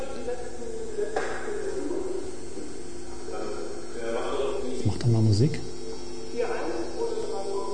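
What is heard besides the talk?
electrical hum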